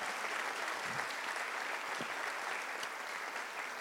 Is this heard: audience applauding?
yes